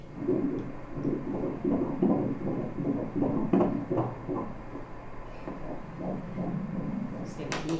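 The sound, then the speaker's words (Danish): A fetal heartbeat on an ultrasound monitor during a pregnancy scan: a steady, fast whooshing pulse, two or three beats a second, loud, with a brief faint voice near the end. “med en fin lille størrelse med et lille bankende hjerte”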